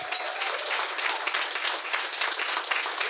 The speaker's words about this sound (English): Now we're probably over time now, but uh, just want to give a round of applause, please, to our panelists,